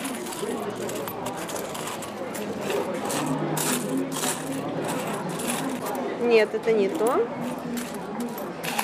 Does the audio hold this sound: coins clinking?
yes